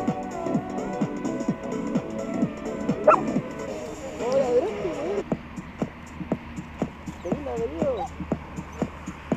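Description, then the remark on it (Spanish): A dog barks for the first time and yips in short bursts, wanting to go play, with whimpering tones mixed in, while voices talk over a low background hum. “Ahora ladró, weón. Sí, bueno, primera vez que ladra.”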